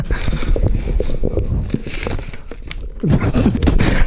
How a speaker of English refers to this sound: Okay, let's see what's in this bag. Wow, it's a lot of crinkly things.